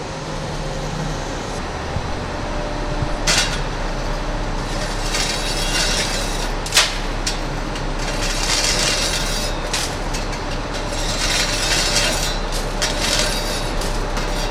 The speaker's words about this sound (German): Nach nur 20 Minuten ist die Einäscherung des 5 Kilogramm schweren Hundes beendet. Die ist jetzt etwas lauter von ganze Gebläse.